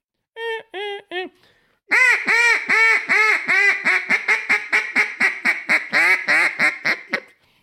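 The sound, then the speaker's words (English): A duck call imitates a hen mallard: three short quacks, a pause, then a long loud descending run of about seventeen rapid nasal quacks, clear with no talking. “A fine hen.”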